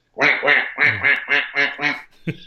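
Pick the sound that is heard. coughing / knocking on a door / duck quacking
duck quacking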